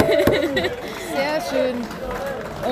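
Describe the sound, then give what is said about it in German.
A group of about 15 men and women erupts in excited, overlapping shouts and cheers, loud, with voices rising and jostling over each other for a few seconds as the third team goes into the lead. “und, ähm, so, und gerade geht die dritte Mannschaft in Führung. Man hört's.”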